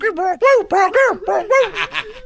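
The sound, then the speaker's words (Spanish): A voice imitates a dog, like a golden retriever, barking, with about six quick, arched bark-like yelps in a steady rhythm, fairly loud, with no other sounds around it. “El perro va corriendo, güey. Es como un golden retriever.”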